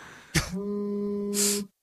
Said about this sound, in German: Das klingt halt wirklich, als wenn dein Handy quasi vibriert und du einen Wecker irgendwie gestellt hast auf eine Stunde oder so